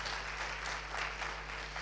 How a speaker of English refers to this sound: Can we give God a big clap offering? All right.